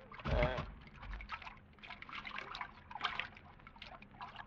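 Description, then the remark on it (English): Water trickles and splashes out in an uneven, gurgling stream, with a louder, sharper gush right at the start before settling into a steady dribbling flow. “The water. It's running out.”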